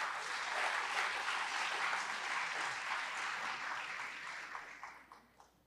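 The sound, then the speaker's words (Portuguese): A crowd applauds the Lord steadily, a dense wash of many hands clapping that holds for several seconds, then thins and fades out at the end. “Você pode aplaudir o Senhor, você confia em Deus?”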